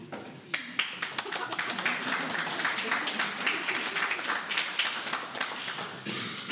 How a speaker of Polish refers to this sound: Będę się śpieszył, a Państwo możecie przerywać oklaskami, jeżeli się coś Państwu spodoba, dobrze? Możemy się tak umówić?